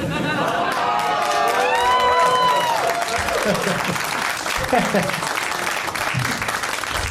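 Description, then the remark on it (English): Loud, sustained applause from a large audience fills the whole stretch, with whoops and cheering voices rising over the clapping early on, then steady clapping continuing. “I'm just laughing at uh, uh, pandering for applause.”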